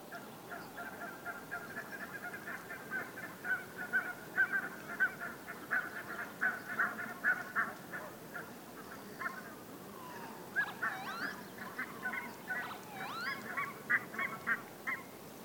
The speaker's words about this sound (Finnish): hanhien taustakonsertti ja töyhtöhyyppien naukasuja siellä välissä.